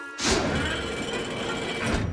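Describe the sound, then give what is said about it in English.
Cranky, a very tall dockside crane at Brendam Docks, grinds and whirs steadily for a couple of seconds as he lifts and loads cargo with his long hook-ended arm. His loud mechanical rattle starts with a soft thump and holds a continuous clanking drone without any voices. “Cranky has a long crane arm with a hook at the end, which he uses to lift and load cargo.”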